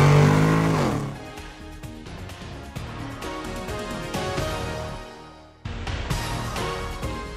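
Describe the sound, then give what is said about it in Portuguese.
A car engine roars loudly, its pitch climbing as it revs while shifted into first gear, then settles into a steady drone as the vehicle pulls away, with a brief dip before the noise resumes. “engata a primeira e vambora!”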